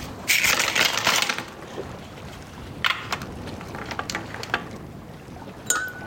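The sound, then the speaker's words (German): Ice cubes drop into a glass of water: a loud, splashy clatter at first, then several sharp clinks and knocks as they settle, ending with one bright ringing tap. “Lasse ich nun diese Eiswürfel in ein Wasserglas fallen, wird der Pegel steigen.”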